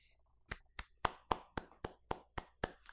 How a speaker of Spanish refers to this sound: Em, me voy a dar un aplauso.